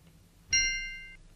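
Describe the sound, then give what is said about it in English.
A single bright bell ding rings out clearly, its metallic tone sustaining for about half a second before cutting off, with only faint background hum; it is used as a cue in a spoken word-memory game. “From now on, just say the next word when you hear the bell.”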